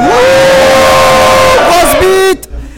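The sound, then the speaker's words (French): A large live crowd, asked to make noise, cheers and shouts for about two seconds, one sustained yell riding high over the roar before the noise cuts off abruptly. “bonsoir à tous, bienvenue dans Geeks League, c'est l'épisode numéro 50 et ce soir c'est un crossover, nous sommes au-dessus du petit bitume et nous sommes très nombreux, allez faites du bruit, euh, c'est le moment.”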